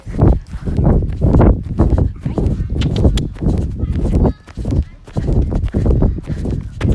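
A horse gallops in an arena, its hooves landing in a steady, rolling rhythm of heavy thuds on soft ground, repeating continuously throughout.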